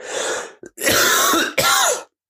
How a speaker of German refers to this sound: Ich muss, warte, ich muss eben husten.